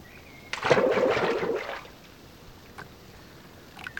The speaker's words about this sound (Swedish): Den gungar till men han lyckas placera de tunga cyklarna i fören utan att tappa balansen. Mannen ror ut ett stycke och låter cyklarna välta över bord.